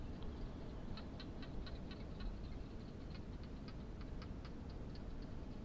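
A barking gecko calls in the desert in the evening with a steady series of sharp, dry clicks over a continuous low rush of wind. No one speaks.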